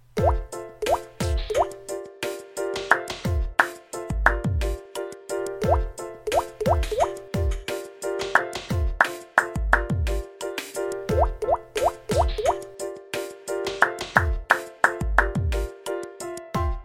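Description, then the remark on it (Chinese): Raindrops fall in quick, rhythmic plops, bouncy watery drips repeating in a steady pattern over a sustained tonal backdrop, with no one talking. “下雨的聲音+新單元節奏特攻隊 Sound of rain”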